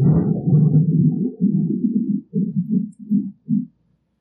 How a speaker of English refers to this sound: Uh oh. That was not a sound effect. that was not a sound effect, was it? Somebody's digging the message. I think when we said the ministry of death is used by the 20th century church, God just gave us a big amen with that thunder.